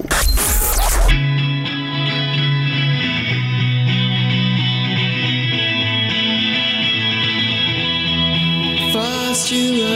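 A loud, dense shoegaze rock track with heavily distorted, effects-drenched guitars forming a sustained wall of sound. A brief noisy burst opens it, then the swirling guitar wash carries steadily throughout.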